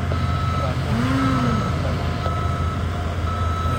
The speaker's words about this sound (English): There's a beeper, uh, which tells you that the truck, a truck, uh, is backing up.